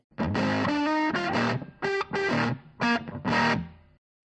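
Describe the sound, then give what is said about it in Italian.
A short radio show jingle of loud, distorted, effects-heavy music, played in punchy bursts of sustained chords separated by brief gaps, lasting about four seconds with no voices. “ma fai partire il jingle e sentiamo Carlo Alberto.”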